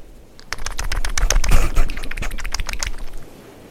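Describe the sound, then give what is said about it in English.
A marlin flops on the deck of a boat: a rapid, irregular burst of wet slaps and thumps against the hard surface, loud, lasting about three seconds before stopping abruptly. “Here is the sound of the noble marlin on the deck of a boat.”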